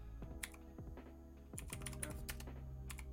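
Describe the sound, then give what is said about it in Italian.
Rapid computer keyboard typing while searching online for Minecraft trivia, a quick run of clicky keystrokes in irregular bursts, fairly loud, with no voices over it. “Scusate per la tastiera.”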